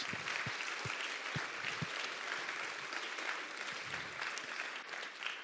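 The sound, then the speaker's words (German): Steady audience applause from a church audience for five translators, a dense wash of many hands clapping continuously for several seconds with a few sharper individual claps standing out, no speech over it. “Und ihr seid meine Helden und gebt ihnen doch nochmal einen ganz großen Applaus”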